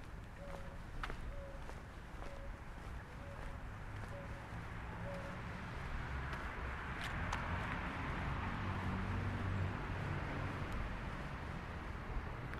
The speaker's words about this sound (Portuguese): estava ouvindo uma rolinha ao fundo. Rolinha roxa, que as pessoas chamam às vezes também de rolinha caldo de feijão, porque ela é marronzinha, roxa, é igual feijão, feijão tem marrom, tem roxo.